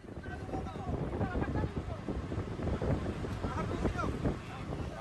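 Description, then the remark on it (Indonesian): Strong wind roars steadily and buffets the microphone over rough, churning water at sea with high waves and extreme weather, a continuous loud rush with muffled voices partly buried beneath it, during a search-and-rescue operation for a ship sunk off Tanjung Liboba, South Halmahera. “Masih dalam pencarian oleh tim SAR gabungan untuk dapat kami laporkan untuk cuaca di daerah seputar e, lokasi saat ini cuacanya e, ombak e, cukup tinggi dan cuaca e, ekstrim dikarenakan dan saat ini tim e, kembali ke menuju ke Kukupang untuk standby”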